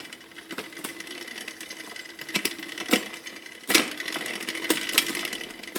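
A bicycle drivetrain slipping out of gear: a steady mechanical whir broken by irregular sharp clicks and clunks, with one louder jolt partway through, fairly loud, no voices.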